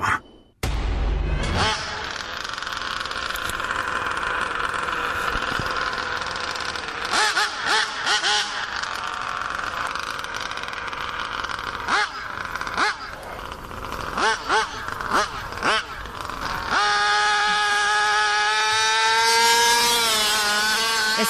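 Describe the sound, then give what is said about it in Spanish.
The new engine of a Mexico Grand Prix racing car revs loudly, its high-pitched whine repeatedly surging and dropping before climbing steadily in pitch toward the end. “el nuevo motor del coche Gran Premio de México, no, es cierto.”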